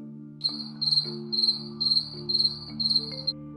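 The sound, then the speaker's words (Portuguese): Crickets chirp in a steady rhythm of about six short, bright bursts, clear, over a soft sustained low tone in the background. “Esses documentos eram deixados dentro de gavetas com vários grilos. Isso mesmo, grilos.”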